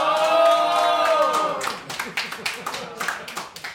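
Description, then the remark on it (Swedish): A studio audience lets out a loud, high-pitched cheer for the first second and a half, then breaks into brisk, scattered clapping that continues steadily to the end. “Vi har en jättehög av publik här. Får vi höra eh, från er också?”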